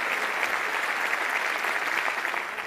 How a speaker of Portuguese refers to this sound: Então, mais salvas palmas